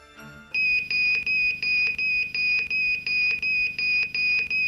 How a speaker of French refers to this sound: Dans la caserne, les pompiers s'interrogent lorsque le détecteur de radioactivité se déclenche.